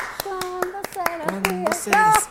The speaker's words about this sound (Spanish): Baño María. María, un aplauso.